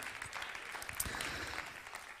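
A crowd applauds, many hands clapping in a dense, steady patter that holds at an even, moderate level for a couple of seconds without any voices.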